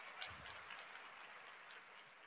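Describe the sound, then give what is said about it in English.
A brief burst of steady crowd applause for this week's Facebook champion, dense overlapping clapping at an even, moderate level for a couple of seconds, with no voices over it. “Our Facebook champion for this week, round of applause”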